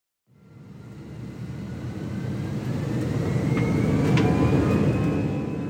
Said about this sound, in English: Recognize that sound? And we're off. It's probably been months since you last flew, and maybe it took you a second, but that's the sound of an airplane taking off.